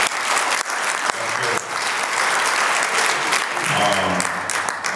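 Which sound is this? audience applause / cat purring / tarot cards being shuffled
audience applause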